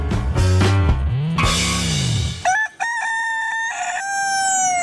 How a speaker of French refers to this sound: Kikeriki, c'est le son du coq d'après les Allemandes.